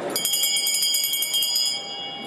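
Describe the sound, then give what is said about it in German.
A hand bell rings rapidly and continuously for about two seconds, bright metallic clangs in quick succession, fairly loud, then the ringing fades into a lingering tone; the new president of the National Council rings the bell to open the session of the United Federal Assembly in Bern, Switzerland. “Erik Nussbaumer, der neue Nationalratspräsident, hat mit den Glocken geläutet”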